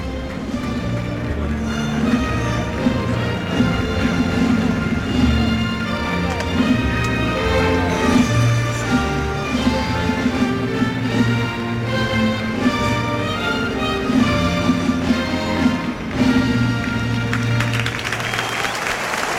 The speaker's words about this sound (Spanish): Respetamos ese minuto de silencio que va a ser envuelto por el himno nacional.